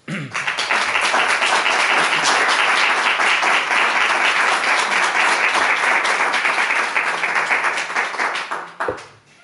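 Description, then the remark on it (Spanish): Sustained applause from an audience at the end of a talk, a dense wash of many hands clapping at once, steady and fairly loud for several seconds before tapering off quickly. “El, silencio que, hay detrás de los aplausos parece como que impone mucho.”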